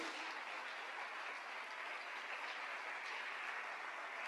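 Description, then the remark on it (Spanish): A church audience applauds its pastors, a dense wash of many hands clapping at an even, sustained level with no pauses and no voices breaking through. “A ver, yo quiero que le den un fuerte aplauso a sus pastores”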